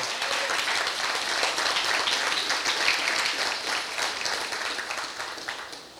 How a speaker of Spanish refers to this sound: Vamos a darles un aplauso.